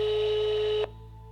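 A telephone line tone sounds steadily for under a second, a single sustained beep over a faint electronic hiss, then cuts off abruptly, leaving a quiet line hum.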